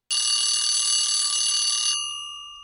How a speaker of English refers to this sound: And the alarm bell, as always, brings to an end another interview show.